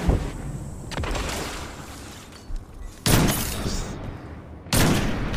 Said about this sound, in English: There's some machine gun.